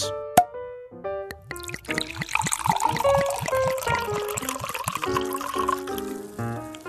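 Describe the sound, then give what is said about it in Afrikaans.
Liquid is poured steadily into a glass at home, a gurgling trickle with rising tonal ring as it fills, preceded by a sharp clink near the start. Fairly clear, no voices. “Jy kom by die huis en skink vir jou 'n glansie lafenis.”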